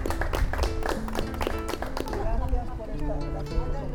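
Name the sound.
audience applause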